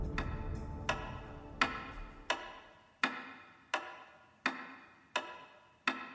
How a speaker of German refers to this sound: Ein einfaches Pendel wie man es in jeder Wanduhr findet. Es bewegt sich gleichmäßig, berechenbar, vorhersagbar.